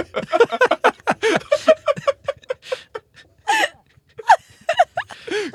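A woman cries from joy in broken, gasping sobs, quick catches of breath and wavering whimpers coming in uneven bursts, with a few pauses between.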